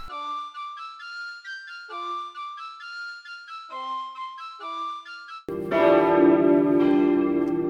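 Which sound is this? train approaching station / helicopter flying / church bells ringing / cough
church bells ringing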